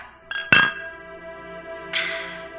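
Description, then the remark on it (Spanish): Glasses clink together in a toast, a couple of quick bright taps followed by a ringing tone that lingers, then another softer clink a moment later, clear with no talking. “Sí, sí, sí, venite, venite, brindemos.”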